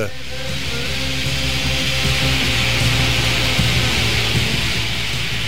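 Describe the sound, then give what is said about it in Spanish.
A shoegaze rock song with guitar feedback: a dense, steady wall of distorted, hissing noise over sustained low droning notes, loud and unbroken throughout, with no speaking. “Estamos escuchando de fondo un tema de este disco debut”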